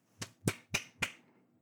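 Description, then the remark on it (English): A woman claps four quick hand claps in a steady, even rhythm, each a sharp crack with a short fading tail, heard alone without any talking and at a fairly soft level. “She's, uh, she's clapping at me again.”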